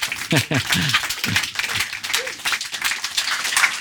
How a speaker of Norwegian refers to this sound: Og hun har et langt oppløp. Fortsett å klappe!